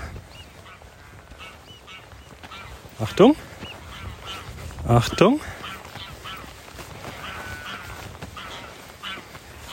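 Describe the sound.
Two greylag geese honk loudly a few times in sharp, nasal bursts, with softer cackling chatter continuing in the background and a person briefly speaking, as people walk toward them by the dike on Pellworm, a North Sea island, in April.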